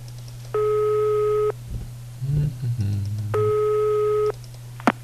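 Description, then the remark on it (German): Two steady electronic ringback tones, each about a second long, sound on an open phone line with a pause between them while the caller phones an elderly woman. Faint handling noises fill the gap, and a small click comes at the end. “Das ist immer ganz nett und da rufe ich jetzt mal an.”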